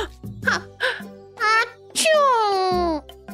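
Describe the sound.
A storyteller acts out the big sneeze of a little crocodile in a children's story: a few short, rising breathy gasps build up, then a loud, drawn-out burst that slides downward in pitch before cutting off.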